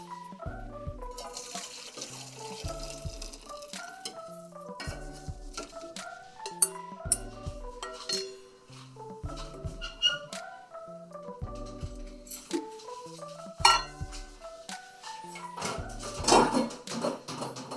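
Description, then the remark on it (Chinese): Fish-skin soup being poured and splashing into a soup pot after the heat is turned off, a steady running-liquid sound that keeps going for the whole stretch beneath a bright, rhythmic melody of background music; no one speaks. “关火，然后把中网丝关起来，把汤倒入的汤锅中。”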